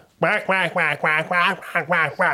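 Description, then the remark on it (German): A person imitates a duck, letting out about seven quick, nasal quacks in a steady rhythm, fairly loud, with no other sounds around them. “Habt das eine Video gesehen, äh, die Entengang, die äh, dann andere Enten abholen zum Spazierengehen?”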